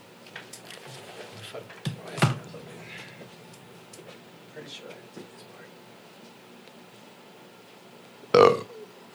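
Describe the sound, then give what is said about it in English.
Two burps ring out, a short one early and a louder, fuller belch near the end, with quiet background murmuring and shuffling between them. “I oh, that wasn't on purpose. I just felt the gas come out.”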